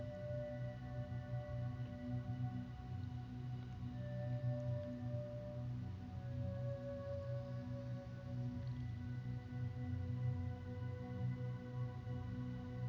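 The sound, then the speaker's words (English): A steady, low rumble of ocean waves washes on without clear breaks between swells, joined by faint, drawn-out tones floating above. No one speaks. “Bring your awareness to your breath as it draws in and out with the sound of the waves.”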